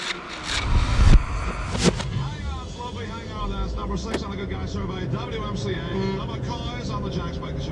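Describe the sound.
A steady low rumble of a car driving along a road, heard from inside, with a voice talking over the engine and road noise; the car has driven nearly 700 kilometres, across the US-Canadian border, past Niagara Falls and through New York State, into Kingston.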